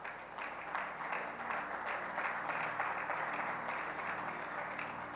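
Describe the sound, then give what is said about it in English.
An audience claps steadily, a dense wash of many hands applauding at an even, sustained level with no speech over it. “If you want to clap, you clap.”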